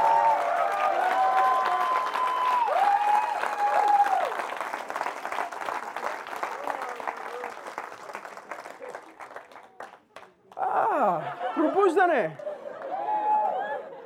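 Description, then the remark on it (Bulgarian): A church audience standing and shouting and cheering amid steady clapping at an evening church service, a loud, dense wash of raised voices that thins out before a single strong voice cries out over the fading crowd. “Когато хората стават и викат, вече знаеш, че, че нещо става в църква.”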